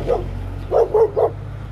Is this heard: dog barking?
yes